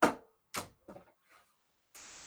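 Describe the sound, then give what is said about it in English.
A shoe, thrown over the shoulder toward a door, hits a hard floor with a loud thud, bounces once with a second thump, then tumbles to rest on its side with a couple of softer knocks, followed by a faint steady hiss. “Back to the door, throw the shoe.”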